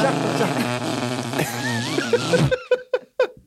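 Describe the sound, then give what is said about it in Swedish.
A voice imitates a long, buzzing fart for about two and a half seconds, wavering in pitch, acting out someone who gets into a car and farts, then breaks into several short bursts of laughter. “Någon som hoppar in i din bil, fiser och sen bara oj, ursäkta.”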